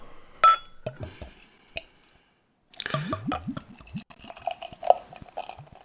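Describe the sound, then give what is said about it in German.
Beer glugs and splashes into a glass, with a sharp clink of glass first, then bubbly gurgling pours and faint fizzing drips as foam forms, no voices. “Na, endlich Schaumbildung.”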